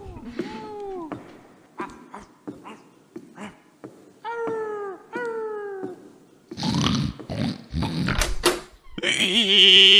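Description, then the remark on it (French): A voice imitates a cat in a jingle, letting out a string of drawn-out, falling meows in short bursts, followed by a louder, busier stretch of vocal noises and a high sustained squeal near the end. “C'est toi qui as fait le chat hmm.”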